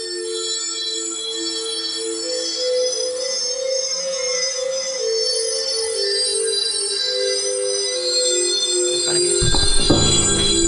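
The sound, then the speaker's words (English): Trippy intro music for the show Some Call Me Tim on Mutiny Radio: shimmering, sustained electronic tones layered in a steady drone, fairly loud and without voices, swelling into a louder, rumbling burst near the end. “When you hear the trippy music, you know what time it is.”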